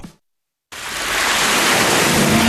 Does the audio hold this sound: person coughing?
no